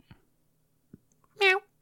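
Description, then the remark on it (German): A cat lets out a single short, bright meow, preceded by a couple of soft muffled thumps, otherwise quiet. “Ich finde es echt ein bisschen weird mit der Katze.”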